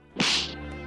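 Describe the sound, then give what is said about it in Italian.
A single sharp, loud slap sound effect introducing a "slap of the week" segment cracks out with a bright whip-like snap, then trails off in a brief ringing decay over a faint low hum, with no voices. “il nostro appuntamento finale e non cambia, cioè la vecchia rubrica, lo schiaffo della settimana.”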